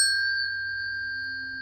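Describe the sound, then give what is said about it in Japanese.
A pair of pure, steady metallic tones from two brain-tuner tuning forks of different pitch ring out together after a light strike, sustaining evenly with a gentle pulsing beat as they slowly fade, clear with no voices. “次にはですね、自分の脳そのものを整えていくという、これブレインチューナーって種類ですけれども、2種類の音差を同時に鳴らして、その間に発生する”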